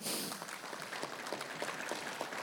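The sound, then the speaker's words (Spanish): A crowd claps for the word of God in a steady, dense patter of many hands, a continuous wash of quick sharp claps with no voices over it, holding an even level throughout. “Un aplauso a la palabra de Dios.”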